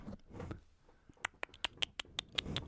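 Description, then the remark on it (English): Quick, light footsteps patter across a hard floor, about a dozen sharp taps in an uneven run. They sound quiet, after a brief low rumble at the start. “It's footsteps.”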